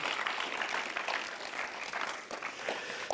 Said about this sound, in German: Ein riesen Applaus für euch. Das für euch.